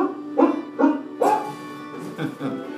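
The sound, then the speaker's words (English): A dog, Rover, barks in a quick series of about five sharp woofs, fairly loud, with a slight pause midway before the last few. “And thanks to our automatic dishwasher, oh, I don't have to dry the dishes anymore after supper gives Rover and me more time to enjoy our evening stroll together.”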